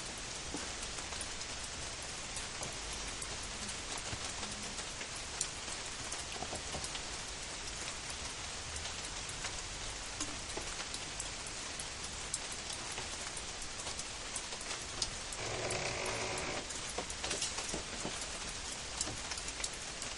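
Steady, dense rain patters on a hard surface, a continuous hiss of countless drops with a brief heavier splash in the middle, fairly loud throughout with no voices.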